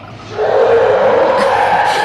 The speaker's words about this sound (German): Ah, hier ist die Hupe. Mal sehen, ob der Drache brüllt.